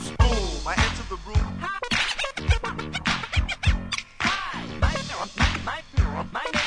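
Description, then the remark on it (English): Rapid DJ turntable scratching over a thumping beat, with quick back-and-forth squeaky record sweeps and stuttering chopped sounds, loud, with no talking. “Jo, wenn ihr wissen wollt, wer am Plattenspieler und am Mikrofon am Start ist, yeah, pickt euch folgenden Scratch.”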